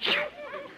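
A single sharp sneeze bursts out loud, its breathy hiss fading into a brief voiced trailing sound.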